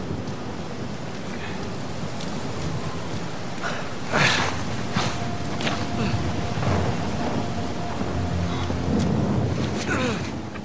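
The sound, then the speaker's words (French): A thunderstorm in the video game Uncharted 4, PS5 version: steady, dense rain hissing throughout, broken by sharp cracks and rumbling rolls of thunder that swell loudly around the middle, with gusty wind noise. “Sous le soleil de Madagascar ou en plein orage, les techniciens de Naughty Dog s'étaient littéralement défoncés pour qu'il soit un”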